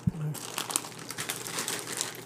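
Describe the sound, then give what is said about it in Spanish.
Continuous crinkling of a plastic wrapper of cookies-and-cream cookies being opened, with a brief low thump at the start and dense rustling bursts throughout. “No, que va a haber galletas.”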